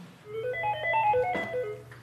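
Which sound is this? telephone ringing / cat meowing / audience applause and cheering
telephone ringing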